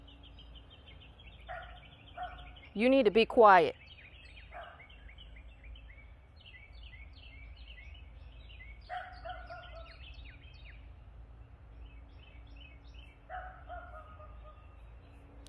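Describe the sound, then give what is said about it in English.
A dog lets out a short, loud flurry of barks, then goes quiet while faint chirping carries on in the background; a person speaks briefly. “I wish this dog would be quiet.”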